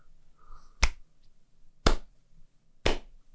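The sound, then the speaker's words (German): A slow clap: three sharp, loud claps spaced about a second apart in a steady, deliberate rhythm, with no talking. “Ich klatsche nicht. Es war ein Slow Clap.”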